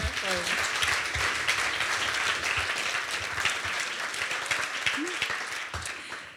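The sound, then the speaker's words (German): Sustained applause from an audience at the end of an event, thanking the guests and the moderator: a dense, steady clatter of many hands clapping for several seconds before tapering off slightly at the end, with faint voices mixed in. “Vielleicht nochmal einen Applaus, wirklich.”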